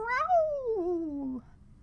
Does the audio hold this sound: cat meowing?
yes